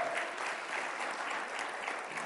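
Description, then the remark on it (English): A crowd claps steadily together, a dense, even wash of many hands without a break. “Just wasn't looking for applause, but I'm grateful there were not as many boos and I couldn't hear them.”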